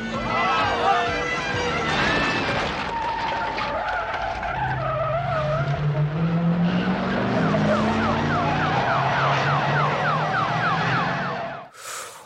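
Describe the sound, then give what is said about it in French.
A loud, chaotic car chase scene from a 1980 film: screeching tires and roaring engines mixed with overlapping wailing police sirens, sustained and dense for about twelve seconds before cutting off abruptly. “cette scène des Blues Brothers, la version originale de 1980, hein, pas la pâle copie de 2000, est certainement la meilleure course-poursuite de l'histoire du cinéma”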